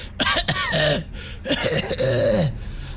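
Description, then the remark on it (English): A person vocally imitates a creature coughing and choking as its fire breath is counterspelled when it opens its mouth, two strained, gurgling bursts with harsh rasping noise, loud, with no other talking. “So it's like it's like rearing back and like getting ready to spew this fire, and as soon as it like opens its mouth to cough it out, uh, you counterspell it, and it just starts like.”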